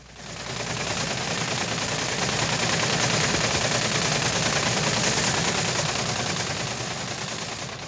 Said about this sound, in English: The sound that you hear right now is the rattle of teletype machines, the machines that send weather observations to and from weather bureaus all over the country. This is our teletype uh, communications room